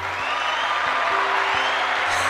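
A burst of applause sound effect, a dense, steady wash of many hands clapping at once, loud and even throughout, with no voices over it.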